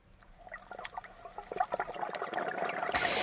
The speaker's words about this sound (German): Das, was Sie hier hören, ist ein Video von meinem letzten Tauchgang auf Kuba.